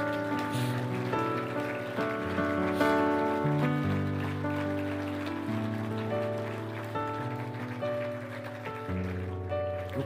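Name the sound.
audience applause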